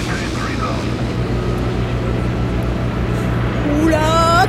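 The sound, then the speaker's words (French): A loud, steady airplane engine drone fills the cabin with a constant low roar as the plane begins its descent, and a brief voice rises over it near the end. “Ça y est, l'avion amorce sa descente.”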